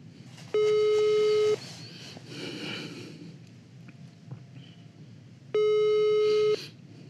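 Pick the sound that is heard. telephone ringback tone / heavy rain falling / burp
telephone ringback tone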